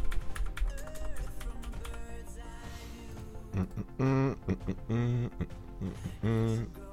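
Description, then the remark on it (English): Rapid clicking of typing on a computer keyboard fills the first half, fairly steady, followed by a few short bursts of a voice toward the end. “so we'll just uh, we'll just bang that in anyway.”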